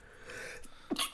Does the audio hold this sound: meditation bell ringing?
no